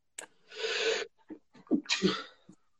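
Two sneezes in quick succession, fairly loud, each a sharp hissing burst, with a few short breathy vocal sounds between them and no talking.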